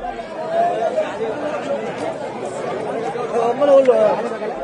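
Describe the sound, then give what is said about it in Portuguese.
A large crowd chattering, many overlapping voices blending into a steady, unintelligible murmur that holds at an even, moderate level throughout, swelling slightly near the end. “Quando Jesus e os discípulos estavam saindo de Jericó, uma grande multidão os seguia.”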